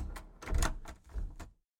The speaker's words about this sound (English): and with that he turned and clicked the lock shut on the front door.